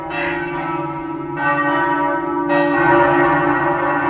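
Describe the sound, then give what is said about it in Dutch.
Church bells of St Mark's in Venice, Italy, ring out in a rich, overlapping peal, with fresh strikes layering onto the lingering hum about every second and a half, loud, with no talking. “En is het echt van oké, als ik mij niet goed voel of als ik me droevig voel of zo, ga ik gewoon even naar San Marco luisteren in Venetië.”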